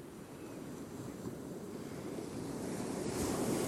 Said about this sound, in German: Die Wellen bewegen sich ständig. Ebbe und Flut sind die Lebenskraft unserer Ozeane.